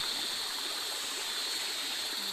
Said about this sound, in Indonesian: Dan kalau kalian bisa perhatikan lebih detail, itu ada suara gemericik air. Nah, gemericik air itu sumbernya itu yaitu dari air-air yang bertabrakan di antara sela-sela batu bara.